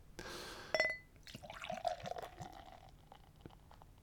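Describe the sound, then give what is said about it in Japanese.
Shiga Kogen Beer 1 Ton IPA from Tamamura Honten glugs and fizzes as it's poured into a glass, a steady stream with a brief clink near the start and foamy bubbling trailing off at the end. “それでは早速ビールを飲んでいきたいと思います今回飲むのは玉村本店さんの志賀高原ビール1トン IPA というのを飲んでいきたいと思います皆さんもビールを用意してください”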